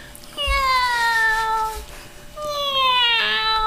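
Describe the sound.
A person mimics a cat's meow twice, each call a drawn-out, falling, whiny tone, fairly loud with a brief pause between them and no other talking.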